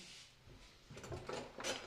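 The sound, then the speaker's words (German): A drawer slides and clatters quietly, with a few short rattling bursts toward the end, soft, and no voices. “Manchmal geht die Schublade kaputt.”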